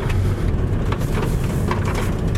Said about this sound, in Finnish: tällä hetkellä hiekotettu, hiekotetulla soratiellä. Tuo hiekan rapina, se kuuluu sisälokasuoista ja lokasuoista todella äänekkään. Jopa, jopa häiritsevä, kuunnelkaa se.